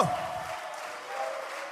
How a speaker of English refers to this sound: Now clap your hands, all you people.